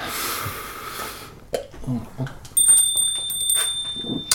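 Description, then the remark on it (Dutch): A bright bell rings from about midway, a sustained metallic tone with steady overtones ringing out for nearly two seconds, preceded by a burst of noisy hiss and some faint shuffling sounds. “weer een bel.”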